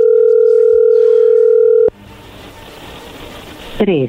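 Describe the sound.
A steady, loud telephone line tone from a phone call being dialed holds for about two seconds, then cuts off abruptly into low hiss, with a brief voice sounding right at the end.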